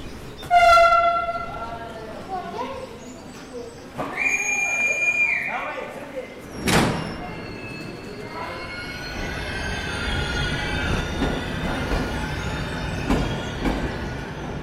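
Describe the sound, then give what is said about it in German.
A train rolls along with a steady low rumble and faint, regular clacks of wheels over rail joints, heard by a passenger whose violin case trembles on their knees in time with the joints, after a couple of loud tonal horn blasts and a sharp bang early on. “Der Geigenkoffer auf meinen Knien zittert im Takt der Schienenstöße.”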